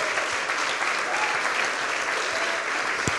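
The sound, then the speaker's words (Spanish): An audience applauds God during a sermon, a steady, dense wash of many hands clapping at an even loudness throughout, with no voices standing out. “Dele un aplauso a Dios, ¿cómo no lo vamos a alabar?”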